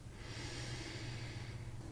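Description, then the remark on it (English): A long, deep inhale drawn in steadily through the nose, airy, filling the quiet for about two seconds with no talking, during a guided breathing exercise. “And let's breathe it in one more time”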